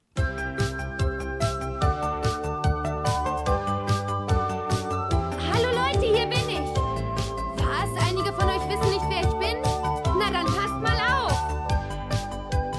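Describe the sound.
A bouncy children's theme song plays loudly with a steady, driving beat and bright instruments; a singing voice joins partway through with melodic, wavering lines.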